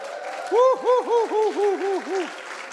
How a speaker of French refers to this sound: Est-ce que vous êtes prêts à vous lever et puis d'applaudir et puis de crier vers le Seigneur?